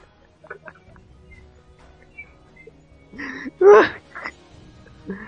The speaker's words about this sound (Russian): Там курицы ходят.